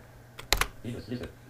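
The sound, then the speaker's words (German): A few sharp computer keyboard key presses, including the up arrow key used to move up in a playlist, click in quick succession, fairly crisp, followed by a brief, faint murmur of a voice in the background. “So, er sagt jetzt eins nicht verfügbar, jetzt müssen wir nach oben, jetzt müssen wir nach oben äh, mit dem Pfeil und da hört man dann bearbeiten.”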